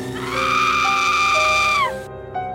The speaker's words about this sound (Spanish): No tardé en escuchar que de alguno de esos cuartos salían ruidos extraños, monitores, herramientas y de pronto un grito.